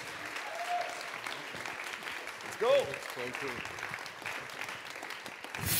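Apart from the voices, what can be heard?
audience applause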